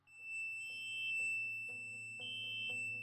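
A security alarm, set off during a break-in to steal a painting, sounds with a steady, piercing high tone and brief shriller bursts over a low, pulsing rumble. It is fairly loud, with no voices.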